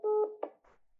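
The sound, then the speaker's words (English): A brief steady electronic phone tone cuts off abruptly with a sharp click, followed by a soft burst of faint line noise as the call disconnects. “phone cut off.”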